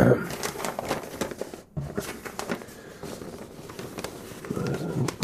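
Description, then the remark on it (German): Dry crackling and rustling of a fairly old scrap of paper, found in old Levi's 501 jeans, being handled; a steady run of crisp crinkles lasting several seconds with a brief pause partway through. “ziemlich alter Papierfetzen.”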